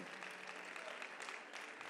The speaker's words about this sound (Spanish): ¿Podría sostener ese aplauso para celebrar?